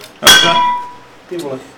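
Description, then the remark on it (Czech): A smart water bottle clanks once, loud, its metallic ring fading over about a second, followed by a brief murmur of voice. “Ne, to byla jeho inteligentní flaška.”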